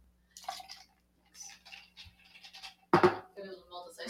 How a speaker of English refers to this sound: We're gonna have some ASMR in there. Pouring the apple juice. ready? Are you satisfied? Did you guys hear that?